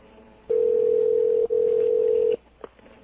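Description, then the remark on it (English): A phone line on a conference call rings out with a steady electronic ringback tone, one loud, sustained burst lasting about two seconds with a tiny break in the middle, followed by quiet line noise. “It's, it's ringing.”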